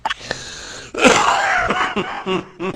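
A wheezy, chesty smoker's-style cough from a person with a congested chest: a short raspy rattle, then a loud, harsh fit of several hacking bursts with gasping breaths, dry, with no talking.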